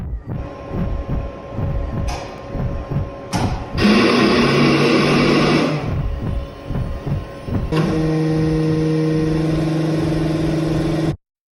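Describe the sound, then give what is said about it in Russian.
An MRI scanner in a clinic hums and drones loudly with mechanical pulsing during a brain scan, bursts into a harsh, rasping buzz, then settles into a steady, layered tonal whine that cuts off abruptly. No one speaks. “Мне все так же тяготил шум в ушах, который как будто бы даже лучше слышно в паузах между гудением аппарата.”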